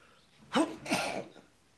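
A single sneeze: a quick voiced intake followed by a sharp, breathy burst that trails off, with no talking around it.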